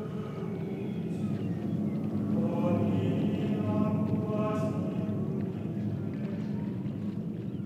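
A boat crosses the North Sea toward England, with a steady, loud rush of wind and waves and faint creaking, wavering tones rising and falling over the continuous roar.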